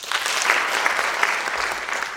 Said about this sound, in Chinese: 今天呃是一个非常特别的一天，我们的贵宾是重量级的贵宾，也就是法务部执行署署长林庆宗署长来到我们现场，呃，掌声欢迎欢迎。